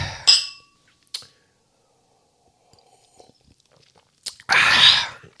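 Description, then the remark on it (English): Glasses clink together in a toast: a bright ringing tap, a softer one a second later, then after a quiet pause a fuller, longer clatter of glass, with no talking. “Let's cheers to that, bitch.”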